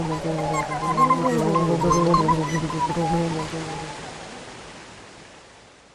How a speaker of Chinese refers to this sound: 就这样飞了很久，才刚听见一阵哗啦啦的瀑布声。